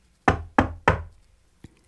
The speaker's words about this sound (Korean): 그런데, 그때 옆칸에서 누군가 똑똑똑 노크를 하더군요.